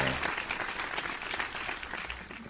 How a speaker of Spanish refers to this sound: ¿Esos son aplausos? ¿O alguien moviendo un papel? Ahí va, ahí va. Parecían garbanzos cayendo. Parezco productor de 1980, ¿verdad? Con mis efectos.